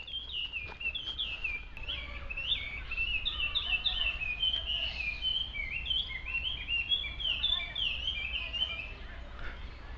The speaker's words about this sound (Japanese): あ今の鳥の声さえずり聞こえましたでしょうか非常に美しいさえずりで何の鳥でしょうかね音程がありますね。